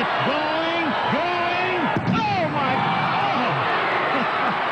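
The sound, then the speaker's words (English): A single sharp, heavy crash as Rodney McCray of the AAA Vancouver Canadians smashes through a wooden outfield wall advertisement chasing a shot to deep right center on May 27, 1991, cutting through an excited play-by-play call and a steady roaring crowd. “propelling himself through a wooden flavor pack advertisement”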